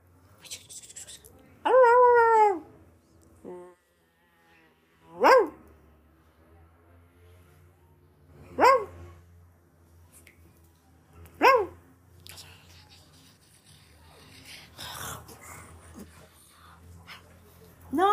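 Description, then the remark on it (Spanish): A female dog, being told to speak on command, lets out about four short, sharp barks, spaced a few seconds apart, fairly loud against a quiet room, the first one drawn out almost like a whine. “Usted es una perra muy inteligente.”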